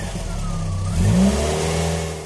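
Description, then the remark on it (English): A family car, packed by the mother and driven by the father, rumbles and revs up, its engine pitch rising as it pulls away, then the engine noise eases slightly as it drives off. “Mum packs the car. Dad drives.”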